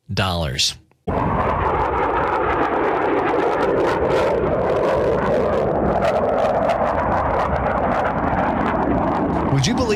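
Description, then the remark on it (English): An F-18 fighter jet roars by, a dense, loud, unbroken rumble that holds steady for about nine seconds after a brief burst of voice at the start. “Oh, and, and by the way, if you were to buy one of these planes, if that were possible, the base price, listen to this, the base price of an F 18”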